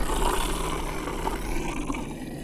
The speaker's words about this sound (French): Derrière lui, il entendit un grognement sourd.